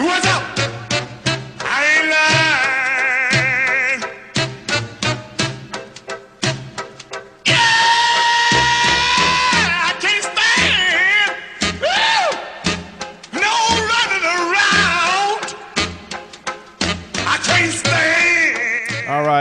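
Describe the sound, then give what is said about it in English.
A rhythm and blues song plays loud, a wild, howling vocal wailing over a steady pulsing beat and brassy backing throughout. “…, …. He I mean, was, the dude sounds possessed.”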